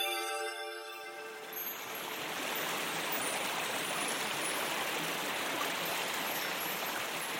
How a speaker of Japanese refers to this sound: 目の前を川が流れておるぞ